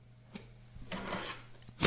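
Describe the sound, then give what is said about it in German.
A small power bank being held in the hand and handled, a soft click followed by a stretch of scratchy rubbing and scraping, ending in a sudden louder knock. No one speaks. “ich habe sie jetzt in der Hand. Vielleicht hat man es gerade gehört.”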